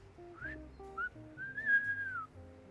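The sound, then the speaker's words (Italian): A person whistles an imitation of a nightingale: two short, bright chirps followed by a long, sustained high note that rises slightly and then falls, with faint low tones underneath. “Questo era bellissimo. Era un usignolo.”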